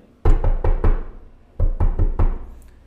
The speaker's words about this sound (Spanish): Ábrame la puerta que llegó Furín, carajo. Y la gente vio cuando yo estoy tocando ese tan tan tan